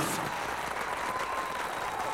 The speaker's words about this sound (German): Nochmal einen Applaus für den Esinem